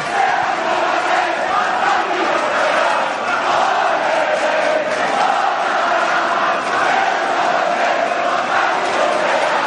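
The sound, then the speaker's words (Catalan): A large crowd of two rival casteller groups chants and roars continuously in the Plaça del Blat in Valls at the close of a castells day, many voices blending into a loud, sustained wall of sound with rhythmic swells throughout. “Els càntics que tenen una colla i l'altra, banda i banda de la”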